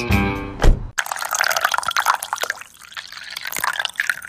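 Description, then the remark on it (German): A short tonal sound gives way to tea being poured into a cup, a steady, bubbly trickle with light splashes that swells and eases over about three seconds. “Nee, für jeden, der auf Toilette müsste.”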